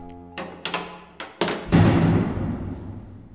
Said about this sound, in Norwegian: Og lyden du hørte, var døra til celle 11 som lukka seg.